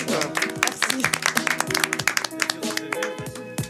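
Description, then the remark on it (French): Audience applause: a dense, steady patter of many hands clapping for a few seconds, with a few voices murmuring and calling out underneath. “Non, mais en tout cas, bravo, hein, on applaudit.”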